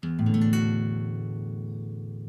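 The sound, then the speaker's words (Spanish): A D major guitar chord strummed from the sixth string, whose open E is not part of the chord, its notes entering in quick succession and ringing out together with a harsh, clashing dissonance that slowly decays. “hace una disonancia extraña que se puede escuchar así si nosotros tocáramos desde la sexta, porque la sexta es la nota de mi al aire y no forma parte del acorde.”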